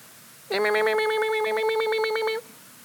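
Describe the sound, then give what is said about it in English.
A human voice imitates baby birds in a nest begging for food from the mother bird with a loud, high, rapidly pulsing chirr held for about two seconds, with no other sounds around it. “That's what your baby birds sound like.”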